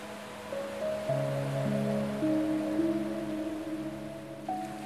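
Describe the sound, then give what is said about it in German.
A steady, hissing wash of ocean waves runs underneath soft, sustained musical tones that hold and shift slowly between notes, with no voices. “Und du siehst das Meer nicht nur, du kannst es riechen.”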